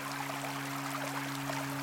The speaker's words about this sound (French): sinon c'est d'écouter tout ce qui se passe, tu vois. et juste de se dire, ok, là, il y a la rivière cool.